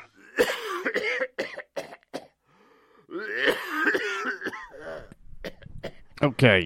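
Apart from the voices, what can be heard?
coughing and throat clearing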